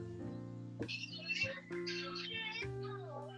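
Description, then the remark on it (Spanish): A cat meows a few times in quick succession, with rising and falling cries over a steady low electrical hum; the meows are fairly quiet. “Un gato.”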